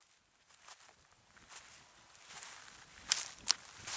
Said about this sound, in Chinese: 所以我接下来要分享的这个声音呢，是来自西班牙特内里费岛的松树林，是两个人踩在落叶上发出的声音